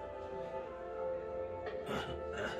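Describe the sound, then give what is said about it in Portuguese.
A sustained tonal hum runs throughout, then near the end a couple of short, harsh bursts break through, like one or two coughs from a very sick man. “Tu só escuta uma tossida, velho.”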